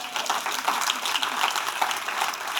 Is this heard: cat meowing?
no